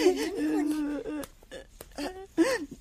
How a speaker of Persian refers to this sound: چه کس تو را به گریه انداخته؟